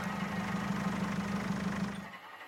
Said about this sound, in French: Il coupe le moteur.